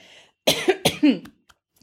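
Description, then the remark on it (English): A quick run of three or four harsh, loud coughs, with a short throaty catch at the end and brief silence afterward. “excuse me while I cough”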